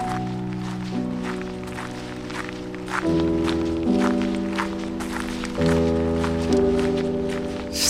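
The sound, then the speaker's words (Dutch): Steady footsteps walk through a park at an even, unhurried pace, each step crisp, while soft sustained music chords play underneath and shift every few seconds. “Oh, nou, laten we daar maar eens eh, gaan kijken dan. Is dat ver weg van hier? nou, het is wel even lopen.”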